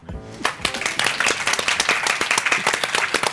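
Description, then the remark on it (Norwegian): An audience at a meeting breaks into steady applause for the host as he welcomes them, many hands clapping in a dense, bright patter that holds at an even loudness. A voice trails off briefly at the very start. “En applaus for meg.”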